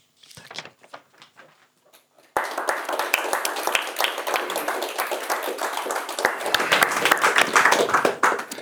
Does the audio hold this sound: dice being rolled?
no